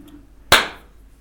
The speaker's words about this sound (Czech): Mám na tebe prozbu, jestli by si neřekl něco hezkého, a, až tlesknu, jo, ať to oddělíme, protože, aby se věděl.